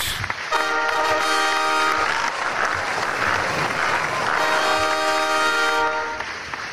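Loud, dense applause for the presentation of the Pelikan Ehrenschwanz Award fills the whole clip, steady throughout, with two long blaring horn-like tones sounding over it, one near the start and another toward the end.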